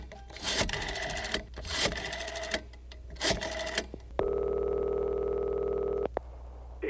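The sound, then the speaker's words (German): Buzzy telephone line tones sound in short interrupted bursts, followed by a steady, unbroken dial tone lasting about two seconds before it cuts off. No one speaks. “Die Telefone zwischen Köln und Prag stehen nicht mehr still.”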